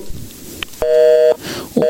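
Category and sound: signal or alarm, telephone busy signal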